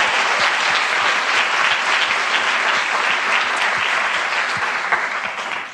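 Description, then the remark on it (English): Steady, full applause from a sizable audience for comedian and actress Kate McCartney, dense clapping sustained at a loud, even level throughout before easing slightly at the very end. “Uh, and season two starts next week on iview, so please give Kate a big round of applause.”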